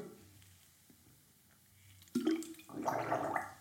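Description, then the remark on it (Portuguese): Someone takes a sip of water: a quiet pause, then a sudden wet slurp and about a second of gurgling, swallowing sounds, with no talking. “Epá, deixem-me só dar aqui um golito de e água.”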